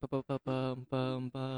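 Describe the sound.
A single voice imitates an advertisement jingle on repeated 'pam' syllables, starting with three quick clipped notes and then three longer sustained notes, clear with no other sounds.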